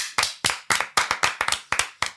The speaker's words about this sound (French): et oui, C'était …. C'était … en fait. Et on applaudit … Bravo …